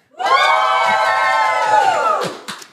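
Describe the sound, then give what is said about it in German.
A live studio audience, asked to go completely wild on a count of three, bursts into loud cheering and shouting, a dense wall of high-pitched screams and whoops that holds steady for about two seconds, then fades with a few scattered final yells. “als Beweis dafür, dass die wirklich hier sitzen, würden wir die mal ganz kurz bitten, dass die einmal auf drei komplett ausrasten.”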